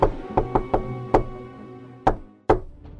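A wolf knocks on the wooden door of the goats' house: a quick run of four resonant raps, a pause, then one more and two heavier, spaced knocks, with no talking.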